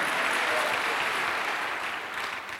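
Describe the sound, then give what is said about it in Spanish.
A crowd claps for the Lord in a dense, sustained burst of applause, loud and even throughout, tapering slightly toward the end with no voices standing out. “Denle un aplauso al Señor, amado hermano, a su nombre, gloria.”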